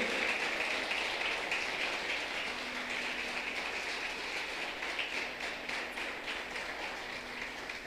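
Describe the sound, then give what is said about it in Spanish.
An audience applauding the Lord during a Spanish-language church sermon: dense, sustained clapping that fills the whole eight seconds at a steady, fairly loud level, with no voices over it. “Den un aplauso grande al Señor.”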